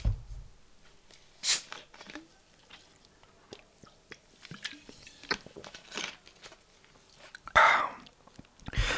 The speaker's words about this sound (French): Au bout de 74 épisodes, je commence à me demander si je ne devrais pas vendre euh, les différents bruits euh, d'ouverture de bouteilles et euh, de déglutition de liquide à une banque de, non pas de sperme, mais de sons génériques